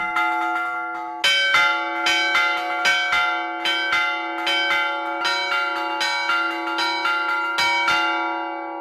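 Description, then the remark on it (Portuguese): A church bell rings the evening Angelus (Trindades) at dusk in a steady series of resonant strikes, each tone sustaining into the next, loud and echoing off the cliffs of the Douro, with no voices present. “E na Alvorada havia toque de sinos para Tiângelo de novo, esse relógio sonoro que ecoa nas arribas do Douro.”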